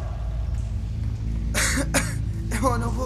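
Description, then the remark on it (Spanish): Three harsh, rasping coughs from a man choking on dust flying everywhere by a rock wall in near darkness, two close together and a third after a short pause, over a steady low rumble in the background. “El polvo volaba por todos lados, haciéndole toser.”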